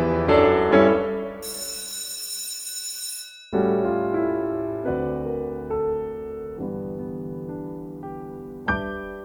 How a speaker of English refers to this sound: Tim continued to play until we heard the school bell ring.